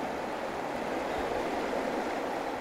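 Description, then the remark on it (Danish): A steady, full rush of fast-flowing river water tumbling over a rapid stretch with many waves, flowing about one metre per second; loud, with a constant hiss and churn and no voices or pauses. “Man kan høre, at der, man kan også se, at der er masser af bølger på.”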